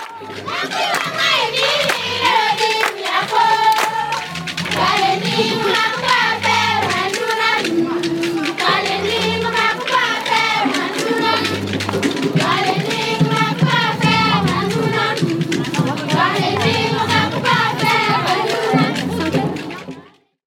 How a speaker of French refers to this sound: Euh, je commence pas à te faire écouter un peu une ambiance africaine et je te raconte après.